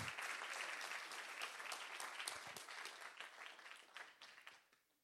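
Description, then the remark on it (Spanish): A church audience breaks into sustained applause for Jesus during a sermon, many hands clapping in a dense, bright wash that holds steady for several seconds before thinning out and fading at the end. “Si usted lo cree, den un aplauso a Jesús.”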